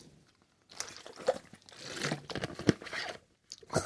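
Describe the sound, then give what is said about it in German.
Someone takes a drink of water: a few short slurping sips and swallows mixed with crinkly plastic-bottle handling, in bursts separated by brief pauses, with no talking. “Darauf trinke ich einen Schluck Wasser.”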